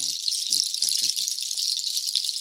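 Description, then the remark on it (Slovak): A percussion rattle made of nut shells shakes continuously, a dense bright clatter with soft rhythmic pulses, while a few faint low voice murmurs sit underneath. “Aké orechy, neviem, ale skrátka sú to škrupinky. Je to perkusia.”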